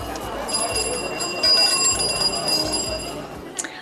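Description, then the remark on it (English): Bicycle bells ring over and over against a busy street bustle in Beijing, their bright metallic tones overlapping and lingering, with indistinct voices and traffic murmur underneath. “And the sound I really remember most distinctly was that of bicycle bells.”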